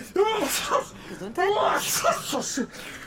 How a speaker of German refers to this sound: Oh, Gesundheit.